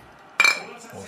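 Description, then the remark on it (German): Two drinks of cola clink together in a quick, bright toast at a wooden table, a sharp ringing tap that fades out within a fraction of a second. “Prost”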